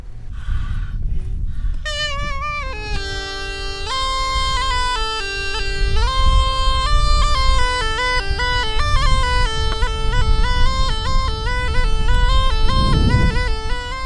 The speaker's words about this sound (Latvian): dūdu skaņu pavadījumā grābekļa dārza šķēres, ķēres, lapu pūtēji un dažāda veida zāģi talcinieku rokās cēsu novada taurupas pagastā vecjaužos darbojas uz pilnu klapi.